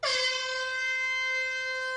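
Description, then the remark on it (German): A single loud, sustained horn blast with a bright, brassy tone holds steady for about two seconds, alone with no voices. “War das die äh, Failfluencer-Hupe?”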